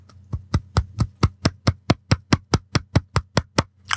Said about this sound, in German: Applaus für äh, Wichte Nummer drei.